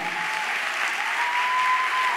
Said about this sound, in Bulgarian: Ръкопляскай, ако вярваш.